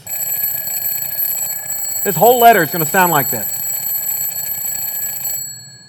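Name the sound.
alarm clock ringing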